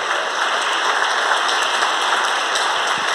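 A crowd claps steadily, giving applause to the Lord, a dense wash of many hands applauding at an even, sustained loudness with no voices rising above it.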